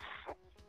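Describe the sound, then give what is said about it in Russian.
A single quick sneeze, a short burst of breathy noise that cuts off abruptly, fairly faint, with no talking around it. “Будь здоров.”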